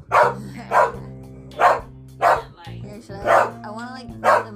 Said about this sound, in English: He could reach it now. he's just barking at it. Are you trying to intimidate it?